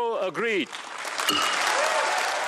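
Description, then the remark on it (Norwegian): WTO delegates in Bali break into cheering and sustained applause after their first-ever trade agreement is gavelled through at night, with a loud voice rising in a whoop before the clapping settles into a dense, steady roar of hands. “Endelig hadde WTO-delegatene noe å juble for.”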